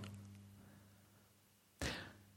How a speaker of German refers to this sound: Doch bevor Karen die Tür schloss, drehte sie sich noch einmal kurz um und munterte ihren Bruder auf.